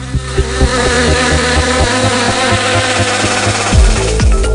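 Loud buzzing of bees drones steadily throughout, its pitch wavering and swooping near the end as if one passes by. No voices are heard.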